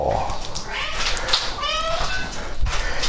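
A hungry, well-fed male cat meows insistently as its food is prepared in its bowl, a drawn-out, rising and wavering call followed by another shorter mew, with no one speaking.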